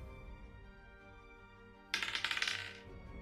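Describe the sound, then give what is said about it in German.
Dice clatter across a hard table in a quick burst of rattling clicks lasting under a second, fairly loud, with quiet room tone before and after and no talking; the dice are rolled for an Athletics check against an opponent's Fortitude. “Äh, ich würfel Athletics gegen die Fortitude vom Gegner.”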